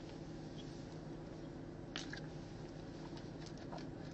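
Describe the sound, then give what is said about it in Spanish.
A few soft, wet sipping and swallowing sounds of someone drinking water, brief and quiet against a steady background hiss, with no talking. “Bueno, déjame le doy un traguito al agua.”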